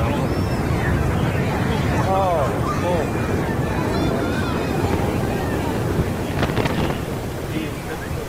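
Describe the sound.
An Antares rocket blows up in 2014 shortly after leaving the launch pad: a loud, steady rumbling roar fills the whole recording, with a sharper crackling burst near the end, while a person briefly exclaims.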